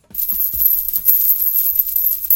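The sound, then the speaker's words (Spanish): A bright jingle of coins shaking and clinking together, with a few sharper clinks standing out. It fills the whole moment at a steady, busy level with no talking. “¿Y yo dónde va con tanta perra?”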